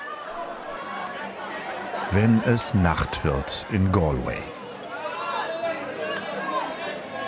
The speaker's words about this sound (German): Wenn es Nacht wird in Galway, dann schieben sich Hunderte und Aberhunderte Menschen durch die schmale High Street. Sie drängen sich durch diese enge Gasse, vorbei an den knallbunt angemalten Häuschen der Händler, den Cafés und den Kneipen.